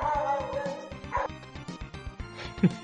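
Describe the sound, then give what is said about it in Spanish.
Several dogs bark and yip in a lively, overlapping burst, with sharper, louder barks near the end; the barking continues without pause for a few seconds. “no, esos perros. Ay, no, no puedo, que, perro esos perros.”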